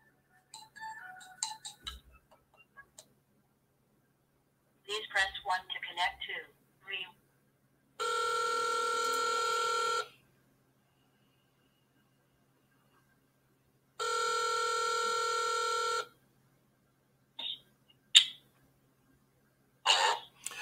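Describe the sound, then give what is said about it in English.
An outgoing phone call: brief dialing beeps and clicks, then the line rings out twice in long, steady electronic tones with pauses between, with short bursts of voice and handling noise around them. “Let's get him on the phone.”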